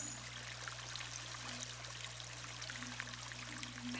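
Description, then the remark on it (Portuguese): Water pours steadily into a glass, a soft continuous trickling splash that runs the whole time over a low steady hum, with no voices and a slight bump at the very end. “E quando for colocar água nesse recipiente, esteja presente, percebendo a água preenchendo um espaço vazio, ouvindo o barulho que a água faz.”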